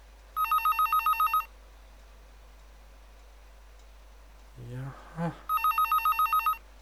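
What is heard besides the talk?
telephone bell ringing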